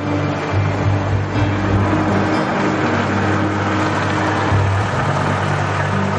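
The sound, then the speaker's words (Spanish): A car engine rumbles steadily, a low, continuous hum that settles into idling as the car stops in front of a bar, with no voices present. “Poco después, se paran frente a un bar.”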